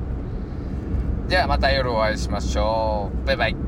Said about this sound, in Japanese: はい、皆さん、あの、車のちょっとノイズとかもね、えー、お聞き苦しい点、えー、ご了承ください。